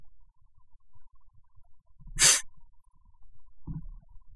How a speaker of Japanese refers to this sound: 今ちょ、くしゃみが出そうになりました。はい、大丈夫です。くしゃみが出そうになった時は、こう、鼻のね、鼻の、なんていうんですかね、こう、小鼻の脇をこうグッと押さえるっていうようなことをやります。